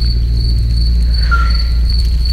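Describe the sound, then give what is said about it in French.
Crickets chirp in a steady, continuous high trill through a countryside night, with a low, constant rumble of aircraft in the air corridors underneath and no one speaking. “On pense la nuit, la campagne, les grillons, les grenouilles.”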